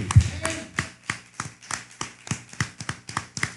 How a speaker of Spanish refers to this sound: Gloria al Eterno, un fuerte aplauso.